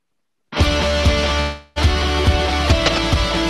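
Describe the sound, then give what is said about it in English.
After a short silence, loud distorted rock music kicks in with heavy guitar and pounding drums, cuts out for a split second, then slams back in at full volume. “We'll just right off the bat, we're back into distortion and drums and guitar.”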